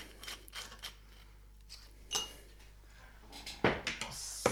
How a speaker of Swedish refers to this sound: Nu häller jag upp eh, den andra rommen här. Det är en tvåa Havana Club.